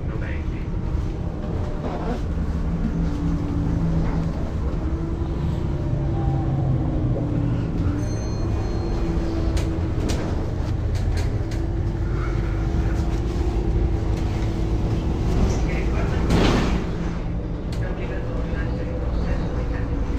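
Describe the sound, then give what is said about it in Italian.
Steady low engine drone and road rumble from inside a moving bus, with a brief hiss of air near the end as it slows for the next stop; a voice talks over the noise now and then. “Adesso quando scendo dall'autobus, alla prossima fermata scendo”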